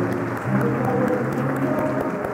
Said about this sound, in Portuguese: Então, vou pedir uma salva de palmas para toda a equipe de Assis, da Assis,